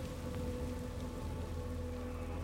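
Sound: rain starting to fall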